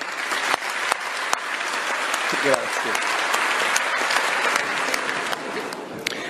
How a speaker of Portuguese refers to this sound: Em rápido discurso na última quinta-feira, Draghi ressaltou sua decisão e foi muito aplaudido no parlamento italiano. Vamos ouvir.